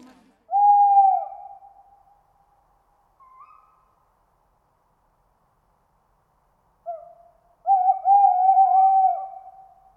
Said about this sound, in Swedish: Det är under våren som det är lättast att höra ugglor hoa. Det är då de parar sig och sjunger på sitt uggliga vis för att annonsera sin närvaro.